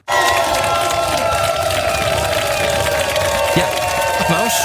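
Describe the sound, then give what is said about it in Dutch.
A large crowd cheers and applauds loudly and continuously at the weekend delivery event for the Lucid Air electric car, with scattered shouts and whoops rising over a dense wash of clapping and voices. “Nee, dit is eh, de uitlevering van de Lucid Air dit weekend.”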